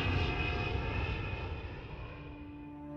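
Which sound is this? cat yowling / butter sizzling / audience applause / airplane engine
airplane engine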